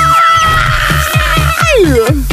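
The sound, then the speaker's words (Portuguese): A person arriving shouts a loud, drawn-out cry with sweeping, falling pitch over a steady rhythmic thumping beat, continuous for a couple of seconds. “Eu gosto de chegar assim. Porque. Chega gritando.”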